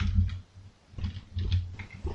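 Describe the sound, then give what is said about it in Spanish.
Soft, muffled tapping of a non-mechanical, low-profile computer keyboard while copying text for a tweet: a quick irregular burst of keystrokes, a brief pause, then more typing, quiet with no talking. “a ver, dejen que no tengo un teclado mecánico.”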